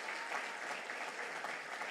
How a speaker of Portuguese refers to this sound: Pode aplaudir a Jesus.